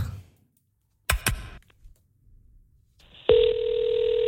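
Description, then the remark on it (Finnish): A couple of sharp handset clicks, then a steady, buzzing ringing tone starts and holds loudly to the end, an outgoing phone call to the Utah Jazz basketball team waiting to connect. “meillä on tuossa tota puhelu, mitä me ei itsekään kuultu, kohta selvii, että onko, mm.”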